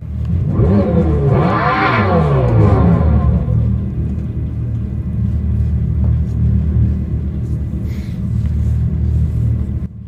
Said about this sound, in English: Uh, here is the sound of the 2024 Dodge Daytona SRT, an EV that sounds apparently, allegedly, like a muscle car. Listen in and give us your thoughts.